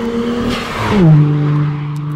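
A fast car, much faster than the ordinary traffic, roars past on a seaside road near Umi-no-Nakamichi Seaside Park in Fukuoka, its engine note climbing then dropping sharply in pitch as it passes, followed by a steady fading hum. No one speaks.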